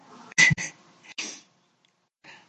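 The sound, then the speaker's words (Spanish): A female cat, acting a little wild, makes a few short, raspy noises: two quick bursts, a pause, another louder one, then a softer sound after a brief silence. “Ay, tengo a mi gata aquí un poco alocada, ¿eh? ¡Hala, calla!”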